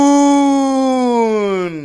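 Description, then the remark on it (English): A football stadium crowd of Packers fans holds a single long, drawn-out chant of a player's name, loud and steady, its pitch sagging slightly before it cuts off after about two seconds. “That is the sound of Packer fans, but they will no longer be able to say that after the team announced this week that they are not going to be bringing back what player?”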